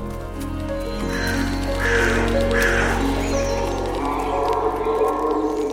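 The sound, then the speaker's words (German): A moose calls with loud, hoarse, nasal moans, drawn out and rising into a couple of stronger bellows midway, over a steady low rumble, with no talking. “Welches Tier suchen wir? Ich sag es dir. Es ist der Elch.”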